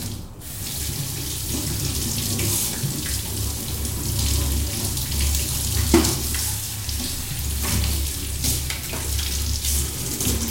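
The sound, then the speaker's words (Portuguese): A kitchen tap runs steadily into a sink for the whole stretch while dishes are washed, with occasional clinks and splashes as dishes are handled under the flow. Fairly loud, no talking. “Então quando eles falarem, ah, se dá triste, vai lavar uma louça, vá, é bom.”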